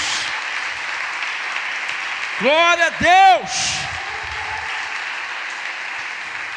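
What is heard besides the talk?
audience applause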